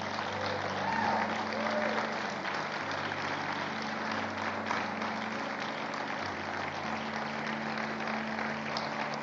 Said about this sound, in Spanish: ¿Te animás a darle un aplauso a él?